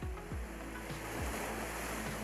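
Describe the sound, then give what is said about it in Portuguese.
Steady wash of ocean surf near the shore at Enoshima, Japan, a broad continuous roar with low rumbling swells rolling in, fairly loud and close, with no voices. “Mas sim, estou próximo do mar, o qual representa bem o Japão.”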